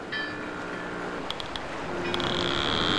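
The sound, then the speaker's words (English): A fishing boat engine chugging through the ocean drones steadily with a low mechanical hum and rushing noise, a few sharp clicks partway through, the sound holding at a constant moderate level with no one talking. “Well, if you hear that sound, speaking of liquid, that's our fishing boat chugging through the uh, through right. the ocean, and that means it's time for the catch of the week.”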